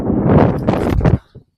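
Loud wind gusts buffet the microphone outdoors on a road, with a heavy, low rumbling roar for over a second, then cut off abruptly, leaving a brief faint thump and near quiet.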